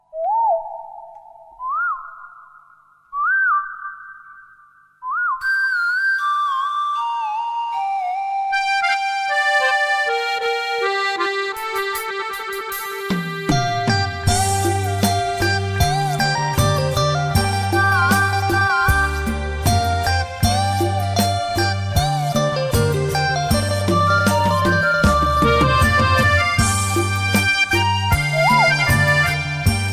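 A song intro played during a radio programme break: three short rising whistle-like tones, then a gliding descent, before a full loud arrangement with a steady bass line kicks in midway. No singing or talking yet.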